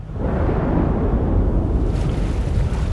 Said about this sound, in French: Le tonnerre, les éclairs, les vagues géantes. Le bateau du capitaine Savat est fort malmené à nouveau.